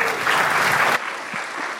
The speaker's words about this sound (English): So how about a round of applause for the first five Berkeley Lab scientists? We're going to bring out our sixth one. How about some applause now for the first five?